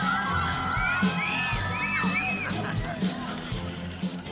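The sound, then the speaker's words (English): A lively crowd claps and cheers for a man after his dance move, with high whoops and shouts rising above steady applause across the whole stretch, loud and continuous with no single voice standing out. “Give him another big clap.”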